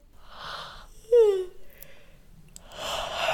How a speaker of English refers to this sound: Let's start with a yawn stretch. Mm. Oh, arcing over to one side and then the other. Starting to yawn